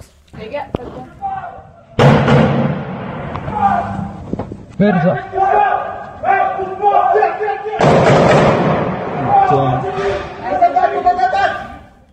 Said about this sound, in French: On a vu plusieurs vidéos, évidemment, de gens qui ont filmé autour d'eux le, chaos, des coups de feu. Je sais pas si on peut entendre un extrait euh, des, des coups de feu dans les dernières minutes à Strasbourg.